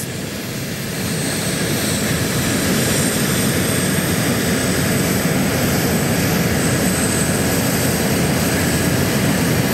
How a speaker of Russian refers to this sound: В боевом порядке тактическое авиационное крыло к Красной площади подходит группа из 10 самолетов. ее составе бомбардировщики Су-34, истребители Су-30СМ и Су-35С.